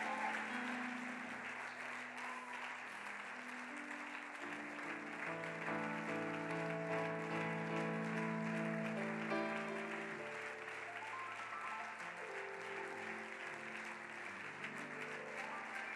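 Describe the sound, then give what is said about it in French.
A crowd, asked to stand, applauds and cheers loudly to acclaim the Lord, clapping blending into a dense roar of cheers for the whole stretch, with sustained musical tones running underneath. “Est-ce qu'on peut acclamer très fort les seigneurs?”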